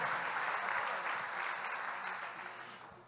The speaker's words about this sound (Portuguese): Aplauda os pastores de vocês aqui.